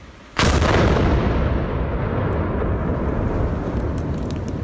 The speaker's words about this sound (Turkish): Patlamanın şiddeti ortaya çıkan yeni güvenlik kamerası kayıtlarıyla da bir kez daha gözler önüne serildi. Fabrikaya 3,5 kilometre mesafedeki bir köyde böyle kaydedildi o anlar.